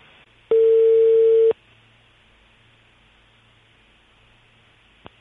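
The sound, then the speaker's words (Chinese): A phone line's connecting tone: one steady, mid-pitched beep lasting about a second over faint line hiss, followed by quiet hiss and a small click at the end. “哎，接通电话，你跟他说话啊。”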